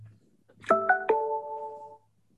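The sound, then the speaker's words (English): Three quick bright notification chime tones from a device in rising succession, the last one ringing out and fading over about a second, clear with no talking. “getting notifications is my new favorite.”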